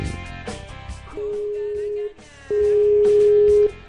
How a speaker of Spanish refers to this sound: ¿Ha visto cómo se oye el sonido del teléfono, eh? ¿Cómo, cómo, estamos llamando? Pi, pi, pi.